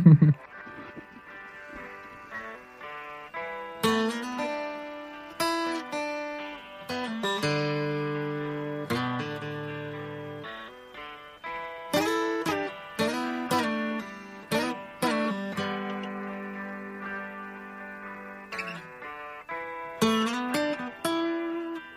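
A rock recording with guitar, its bright plucked notes and sustained chords ringing out at a steady moderate volume, with sharp accents recurring throughout and no talking over it.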